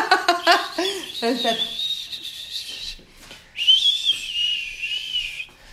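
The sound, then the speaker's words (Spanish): Two long, shrill mouth whistles in the style of a muleteer's call, each held steady for over a second, fairly loud, following a burst of laughter and voices. “¿Qué fue ese chifleo de arriero?”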